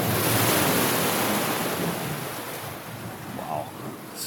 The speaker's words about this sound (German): Und da hauen die Wellen gegen und spritzen dann durch den Tunnel durch.